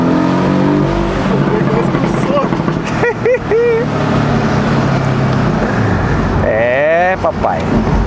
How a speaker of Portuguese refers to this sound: Pé no freio e no acelerador no máximo. O giro do motor vai no máximo, né, no máximo é, permitido do launch control e a gente vai decolar de uma forma meio brusca, tá bom?